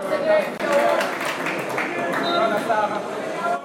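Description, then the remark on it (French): A large crowd of football supporters in a stadium at a Senegal Cup round-of-16 match applauds steadily, the dense clapping blending with a roar of voices into a continuous wash of sound. “Ces supporters applaudissent sur une belle combinaison de leur équipe ou pour encourager un joueur.”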